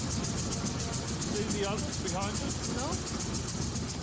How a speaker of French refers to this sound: Fidèles à la conviction qu'une auto est avant tout faite pour rouler, les ancêtres ne s'en privent pas. Le public peut donc se régaler non seulement du son des moteurs,